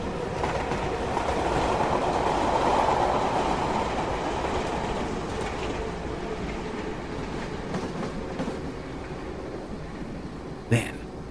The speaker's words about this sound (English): As he watches the train barrel into the station, Gruner also sees that off to one side of the tracks, in the field, the still smiling man is signaling to the conductor that he doesn't have to stop since no one has bought a ticket.